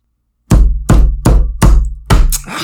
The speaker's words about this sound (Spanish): Abría cajones y estrellaba puertas.